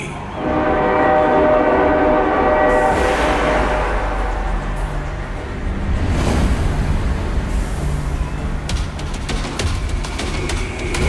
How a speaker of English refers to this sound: Brace yourself, for the Tomorrowland train is coming your way.